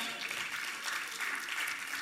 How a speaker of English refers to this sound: So I ought to get a half a clap from the church. Can I get a half a clap?